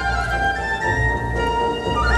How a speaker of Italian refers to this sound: Ecco il flauto. Ottavino e flauto. Avete visto come si è aggiunto l'ottavino a raddoppiare il flauto? E il suono è subito un altro, no? Ancora più eccitato. È più eccitante.